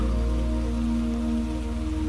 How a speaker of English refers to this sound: And as you breathe out, the rain continues to take away all of your stress and all of your anxieties, carrying it all away from you and deep down into the earth.